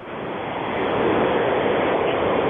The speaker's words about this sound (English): I can hear the road really well.